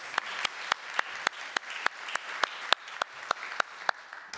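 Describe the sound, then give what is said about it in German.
A crowd applauds steadily for several seconds, a dense wash of clapping with sharp, evenly spaced louder claps standing out almost like a beat. No one speaks. “Ja, ein Applaus.”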